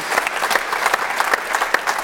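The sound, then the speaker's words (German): A short burst of steady hand clapping from a group, dense and fairly loud, with sharp individual claps standing out in an even rhythm throughout. “Das ist ja wirklich ein Applaus mal wert, so Fehler einzugestehen.”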